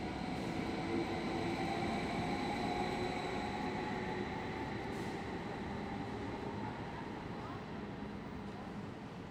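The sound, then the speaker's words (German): Steady rumble of an S-Bahn commuter train in motion, heard from inside the carriage, with a constant low roar and faint rhythmic clatter under a thin mechanical whine, continuous throughout. “Schon verrückt, wie schnell ich mit der S-Bahn daheim bin.”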